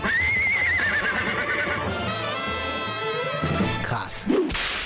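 A horse whinnies loudly, its wavering neigh rising and falling, while hooves clip-clop steadily underneath; a sharp clatter follows near the end.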